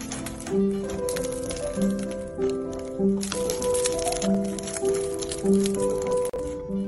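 A flaky croissant is sliced open up close, with a steady, dry crackling crunch that swells in bursts, while soft tonal music plays underneath.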